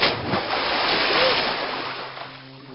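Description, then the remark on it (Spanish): A coin falls into water with a splash that bursts up at the start, then a steady frothy wash of churning water fills the moment and slowly settles, loud, with no voices. “La moneda cayó al agua. Tranquila, voy por ti.”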